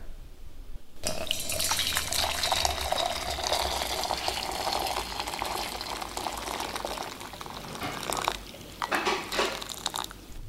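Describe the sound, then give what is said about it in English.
Hot water is poured in one go into flour, a steady hissing, splashing stream that starts abruptly and runs continuously for about nine seconds before tapering off. No one speaks. “Yeah, we are going to pour the hot water into the flour okay. at one go.”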